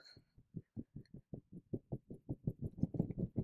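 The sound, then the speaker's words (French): Muffled scratching of sweater fabric rubbing against a microphone, a steady run of soft rhythmic thumps that grow slightly louder and faster toward the end, with no one talking. “J'entends juste ton chandail dans les oreilles.”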